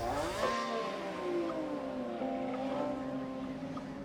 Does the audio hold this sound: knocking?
no